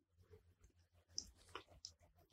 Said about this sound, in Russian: Ух, нужно в такой момент глотнуть кофейку